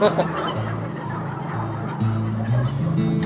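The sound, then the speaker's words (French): A flock of turkeys gobbles together in a dense, overlapping chorus, many birds calling at once in bursts that rise and swell, fairly loud, with no talking. “Pourquoi qu'ils partent tous à, faire des trucs en même temps? Comme ça, c'est. C'est typique, c'est typique à Odindon, là. Ils se parlent.”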